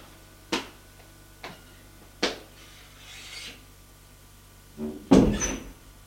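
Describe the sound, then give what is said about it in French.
A woman knocks three sharp times on a door, unevenly spaced, then a soft shuffle and a louder clunk with a rustling swell as the door opens and she enters. No voices. “La femme frappe à une porte.”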